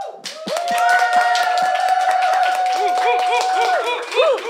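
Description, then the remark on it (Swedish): Applause from a group for the guests, dense steady clapping lasting several seconds, with a long sustained whistle and rising-falling cheers and whoops riding over the clapping. “Ja men typ en applåd för er.”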